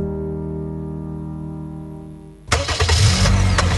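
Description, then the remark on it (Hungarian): A BMW car engine starts up: a steady low humming whine for a couple of seconds, then the engine fires and roars into a loud, full idle rumble. “Az induló élmények hangja, melyet most kedvező finanszírozási konstrukció keretében tapasztalhat meg”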